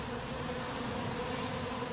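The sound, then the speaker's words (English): A steady, dense droning buzz of many drone (male) bees, loud, holding an even low hum for the whole moment with no voices over it. “so they're called drones because they make that loud droning sound.”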